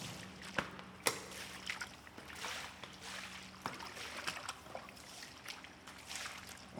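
Water runs steadily in a shower room, a broad hiss broken by sharp splashes and knocks, with a low electrical hum underneath and no voices.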